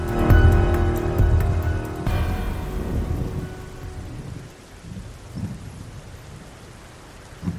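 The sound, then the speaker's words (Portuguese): Heavy rain pours down with a deep rumble of thunder rolling loudly at first, then fading into a steady, dense downpour with occasional low booms, a storm faced while driving a Chevette along the Anhanguera. “E enquanto dirigia o seu chevette pela Anhanguera, enfrentando aquela tempestade.”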